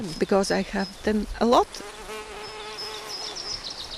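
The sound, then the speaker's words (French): Honeybees and wild bees buzz as they forage around trees, their droning pitch rising and falling as they swoop past in the first second and a half, then settling into a steadier, softer hum. “Des abeilles domestiques et sauvages butinent autour des arbres.”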